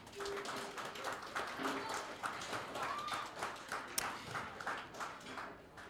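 Applause from a small audience at a live event, thanking the people who handled the sound: a steady patter of many hands clapping at moderate volume for several seconds, with no one speaking over it.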